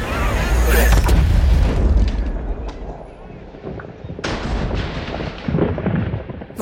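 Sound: explosion blast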